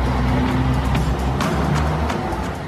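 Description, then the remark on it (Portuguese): A car engine rumbles loudly and steadily, with a dense roar of road noise that eases slightly at the end as the vehicle moves past. No one speaks. “E, e aí, em seguida, começou a passar carro.”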